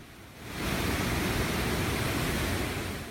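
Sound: roaring waterfall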